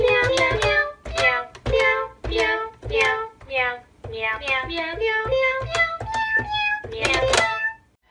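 A tune played on a Cat Keyboard, a keyboard made of cat meow samples: a quick string of loud meows at shifting pitches, stepping up and down like notes in a melody.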